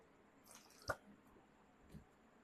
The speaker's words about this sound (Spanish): No, permítanme tomar un poquito de agua y ahorita